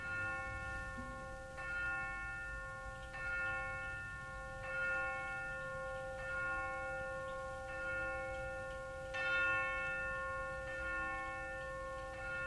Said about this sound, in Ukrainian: І тут годинник голосно вибив дванадцяту.